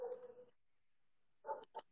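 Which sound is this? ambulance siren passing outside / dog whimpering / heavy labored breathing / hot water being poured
dog whimpering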